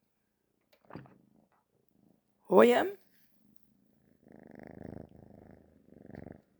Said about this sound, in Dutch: Ik vind dat altijd zo'n fijn gevoel als, de, eh, eh, als de, de kat knort. Ik weet niet of jullie hem hoorden, maar de katten die die, die dat knorren geven, zeg maar, dat spinnen, dat, eh, dat, dat heeft ook een rustgevend effect op je als mens.